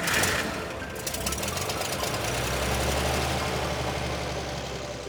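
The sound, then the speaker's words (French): A truck engine rumbles steadily as the truck drives along the road toward Saint-Léonard d'Aston, a deep, continuous low hum with a rough, knocking texture and no voices. “Quelques secondes plus tard, ils sont bien installés sur le dessus du camion qui prend finalement la route en direction de Saint-Léonard d'Aston.”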